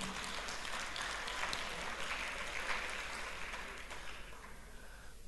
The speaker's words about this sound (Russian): Да и тут можно сдать огромные аплодисменты Господу.